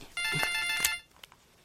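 A phone ringtone plays a bright, steady electronic tone lasting under a second, with a few soft clicks and faint noises after it stops. No one speaks.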